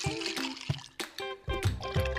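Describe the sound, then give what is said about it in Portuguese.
Short pour of whisky into a glass of ice, with a gurgling splash and a few sharp clinks of ice cubes shifting against the glass. “Tô tomando um esquinho aqui, ó. Gosto de um esquinho, né? Com gelinho, com gelinho.”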